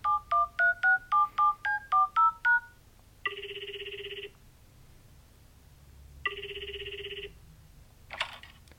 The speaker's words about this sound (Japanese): 今度は疑われないようにちゃんとした感じでかけてみようとかけ直します